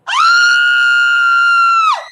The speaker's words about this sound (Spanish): Acto seguido, abro la boca y lo que sale es un grito desesperado.